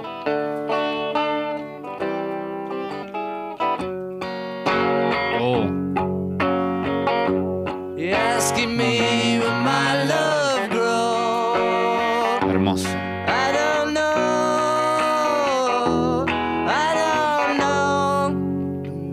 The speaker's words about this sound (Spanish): Estamos escuchando demos.